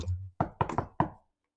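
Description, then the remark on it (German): Four quick knocks on a door in a short, slightly uneven burst, clear, after a brief low rumble, then silence. “damit diesem Klopfen leite ich auch so ein bisschen den Sketch ein.”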